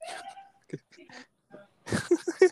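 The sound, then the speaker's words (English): A voice imitates snickering: a few soft, breathy bursts, then a quick run of stifled, clipped giggles that grows a little louder at the end. “I get on the bus and all I hear is snickering, like”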